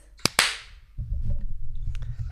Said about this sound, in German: Ja, klatsch jetzt einmal. 3, 2, 1.